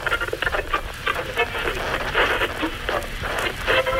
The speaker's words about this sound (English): 1967, and the static of AM radio can be heard on transistors across the Gold Coast.